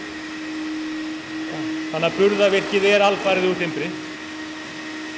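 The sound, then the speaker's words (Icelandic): A steady, droning vacuum cleaner hum runs unbroken from start to finish, with a constant mid-pitched whine, from vacuuming amid drilling on a construction site, while a person speaks over it for a couple of seconds in the middle. “það er hérna alltaf verið að bóra og ryggsuga og allt það hérna á, á fullu”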